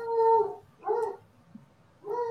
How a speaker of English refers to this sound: uh, it's dog's going crazy outside. You hear uh-huh. that? I do. He's having a nightmare, or what? I have no idea if that dog is losing his mind, though.